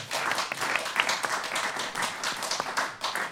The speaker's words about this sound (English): round of applause for ….